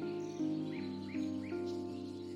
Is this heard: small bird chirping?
yes